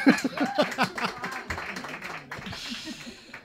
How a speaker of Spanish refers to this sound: Un aplauso para la Guardia Civil.